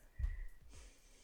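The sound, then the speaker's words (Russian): A single short sneeze by a woman: a quick low burst of breath followed by a soft, hissy nasal exhale, fairly quiet, with no talking around it. “Будь здорова, будь здорова, будь здорова, будь здорова, будь здорова, будь здорова.”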